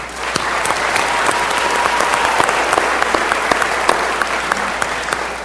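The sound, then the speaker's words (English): Steady, dense applause from a room full of people welcoming a speaker fills the whole stretch, many hands clapping at once with a few sharper claps standing out, one loud cheer from someone at the back of the room, and a faint crowd murmur underneath. “That's either one very ardent Dodger, UCLA, or Obama fan in the back of the room. Yes, I heard that.”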